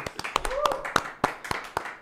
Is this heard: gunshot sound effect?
no